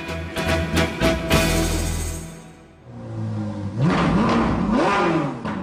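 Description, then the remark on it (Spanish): A sports car engine, designed and built by the Instituto Politécnico Nacional, roars with a burst of revving and clatter at first, then rising and falling revs as the throttle is blipped repeatedly. No one speaks. “Así es, preguntona, el Instituto Politécnico Nacional no solo diseñó y elaboró un automóvil deportivo, sino que dispone de una variedad de carros con los que participa en competencias de diseño todoterreno.”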